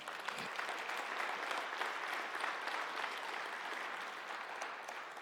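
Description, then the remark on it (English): A church audience breaks into sustained applause for the Lord during a sermon, a dense wash of many hands clapping at a steady level for several seconds, with no voices standing out. “Give the Lord a hand clap right now.”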